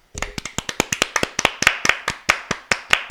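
round of applause

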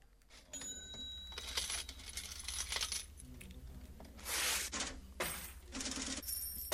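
coins dropping and clinking

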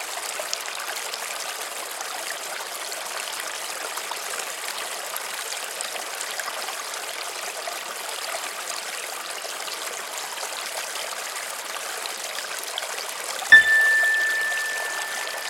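flowing river stream

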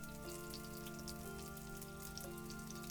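steady rain falling

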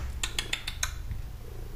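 cat purring

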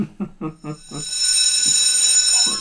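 school bell ringing

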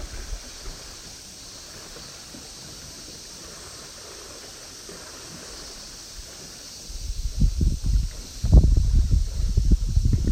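wind blowing

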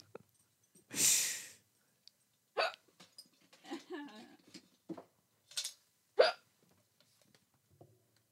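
hiccups

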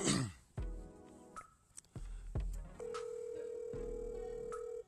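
outgoing phone call ringing

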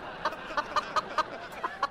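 hen clucking

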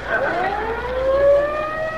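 police siren

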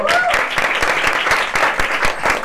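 applause

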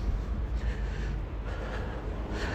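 heavy panting

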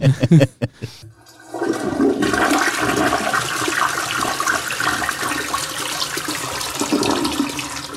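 toilet flushing

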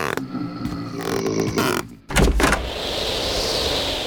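door being opened

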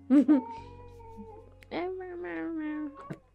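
small cat meowing

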